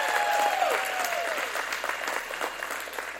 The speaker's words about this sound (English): I was at the game Friday night. Awesome game. Leopards won. Give them a hand clap.